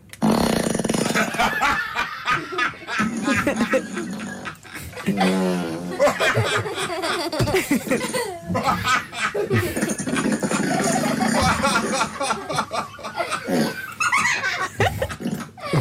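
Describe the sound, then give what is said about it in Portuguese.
A virtual assistant plays a long, nonstop run of loud, varied fart sounds, one after another: some short and sputtering, others drawn out and wobbling in pitch, with occasional snickering mixed in. “uma coisa gira de fazer é pedir um assistente virtual que dê valentes pumes todos seguidos uns aos outros.”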